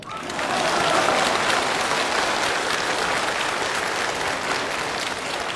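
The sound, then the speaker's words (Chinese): An audience claps steadily, a dense, continuous wash of applause that swells in quickly and holds at an even, loud level throughout, with no voices heard over it. “我郑重宣布，凡是鼓掌的都被评为本次学习的劳模。”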